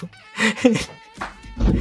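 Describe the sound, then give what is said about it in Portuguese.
A housefly buzzes on the speaker's recording set, its drone swelling and fading in uneven bursts as it flits around, with brief gaps between passes. “E tem uma mosca aqui, ó, no meu cenário, eu vou ter que expulsá-la.”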